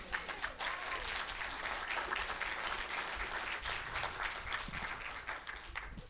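A crowd applauds steadily for about six seconds, a dense, even wash of many hands clapping at once that holds at a fairly loud level before thinning slightly at the end.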